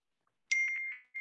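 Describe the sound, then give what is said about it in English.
A short electronic text message notification chime on a phone rings out, a bright tonal burst followed by a few quick pulsing notes and the start of a repeat, clear with no voices. “Excuse my phone. That's my daughter texting me.”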